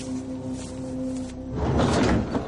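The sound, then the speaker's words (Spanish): A man opens a door into a shed at a harbour: it slides open with a rumbling, scraping rush after a steady low mechanical hum, the grinding swell building loudly near the end. “Abre una puerta, saca una linterna y entra en una nave.”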